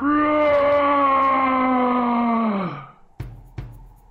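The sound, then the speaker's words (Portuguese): A voice imitates an orc's roar: one long, loud, growling harmonic cry lasting nearly three seconds, sliding down in pitch at the end, followed by two short sharp clicks. “O orc solta um, um rugido.”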